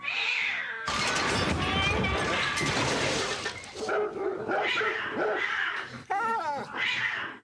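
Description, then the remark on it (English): A person vocally imitates a cat fighting a man's dog: loud, continuous yowling, hissing and snarling bursts overlapping with bark-like cries, frantic, rising in pitch near the end. “the cat is alive and gets into a fight with the guy's dog.”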